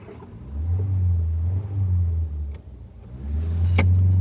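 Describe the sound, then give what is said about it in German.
A car engine revs up and pulls away, setting off to drive to the south coast, to a friend's fishing hut, with a deep, steady rumble that briefly dips, then surges again, with a sharp click near the end and no voices. “Wir fahren zur Südküste, zu der Fischerhütte Ihres Freundes.”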